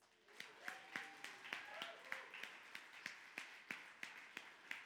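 A standing audience applauds the father of the church on Father's Day, with loud claps falling in a steady, quick rhythm over a dense wash of hand noise, while a few voices call out during the first couple of seconds.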